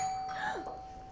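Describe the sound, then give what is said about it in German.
A doorbell chimes once, a clear two-tone ding-dong that falls in pitch, fairly loud, with no talking over it. “Ganz ruhig. Das wird Tim sein. Ich gehe mal lieber mit zur Tür.”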